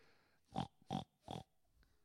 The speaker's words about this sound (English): When was the last time you saw a herd of pigs?